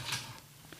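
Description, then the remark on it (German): A brief, soft papery rustle of a question card being pulled from a question box, followed by a couple of faint light clicks. Quiet, with no voices. “möchtest du deine Fragen ziehen?”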